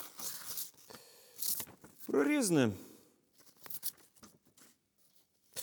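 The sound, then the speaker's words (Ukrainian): Pages are torn out of a book and crumpled in rough, noisy bursts before being thrown into a stove fire, followed by scattered dry crackling rustles. A voice briefly speaks midway through. “Потім почав вирвати з книжки сторінки, жмакати, і кидати їх у вогонь.”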